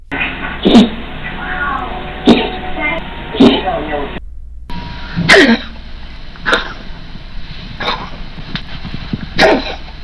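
A cat with asthma coughs and wheezes in a steady series of about seven harsh, hacking bursts, roughly one every second or so, fairly loud, with raspy breathing between them.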